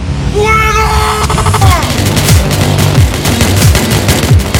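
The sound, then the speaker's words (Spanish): Several M16 rifles fire at once in rapid, overlapping bursts, a dense loud volley of cracks with booming low rumble, sustained throughout with no voices clearly heard. “de M16. Varias armas disparando a la vez.”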